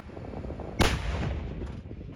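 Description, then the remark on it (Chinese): A French-made CAESAR truck-mounted 155 mm self-propelled howitzer fires a single heavy boom that erupts suddenly and rolls away into a long, low rumble, with no voices present. “法制凯撒车载型一百五十五公里自走炮，砰的一声，震撼力十足。”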